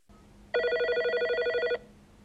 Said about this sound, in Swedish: Apropå signal. Ja. Då har vi fått, telefonsignaler. Vi har fått ett samtal nu idag igen. Det har vi.